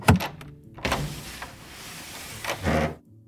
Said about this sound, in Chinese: 等等，先让我锁上门，关好窗。